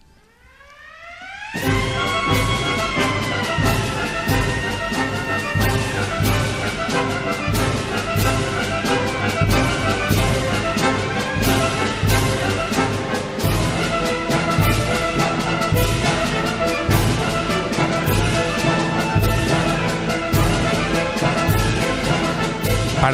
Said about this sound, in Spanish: Eso era una sirena, ¿no? Eh, claro, una sirena. Que yo decía, se nos ha colado una sirena aquí, ¿no?